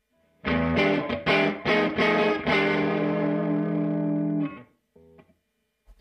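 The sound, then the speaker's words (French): An electric guitar plays through an effects pedal using Tim Pierce's Single Coil Neck Pickup sound, a warm, rounded tone; a loud strummed chord phrase rings for several seconds before fading, followed by a short quieter fragment. “Il a un autre son qui s'appelle Single Coil Neck Pickup.”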